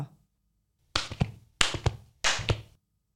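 Hooves of a small horse galloping while it is snowing, in three quick bursts, each a rapid cluster of hollow clip-clop thuds, moderately loud, with short pauses between. No voices.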